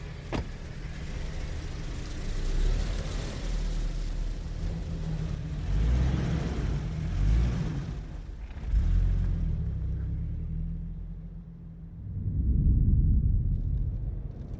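A car drives along the road with a steady low engine rumble and tire noise, swelling a few times as it accelerates, with no voices.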